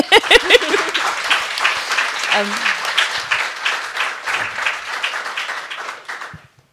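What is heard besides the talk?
audience clapping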